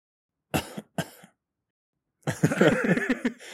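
Two short, sharp coughs close to the listener in quick succession, then a brief silence before a longer, busier stretch of vocal noise.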